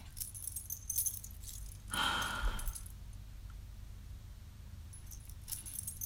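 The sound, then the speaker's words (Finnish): Metal buckles on a dog's harness jingle in a brief burst near the middle as the harness is being put on the dog, a bright clinking rattle lasting under a second against a low, steady background rumble. “Istunut edes sen aikaa, että saan nämä valjaat sulle.”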